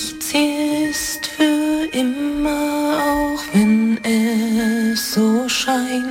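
A solo voice sings a slow German-language ballad melody in clear phrases, holding long notes with gentle vibrato and pausing briefly between lines.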